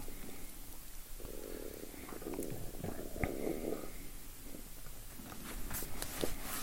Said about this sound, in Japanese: なんかめっちゃお腹が鳴るのなんだろう。めちゃくちゃお腹が鳴りまくって。何かいるよね、お腹の中に。なんか喋ってますよ、僕のお腹の中で誰かが。なんでこんなお腹が鳴るんだ ずっと鳴ってる。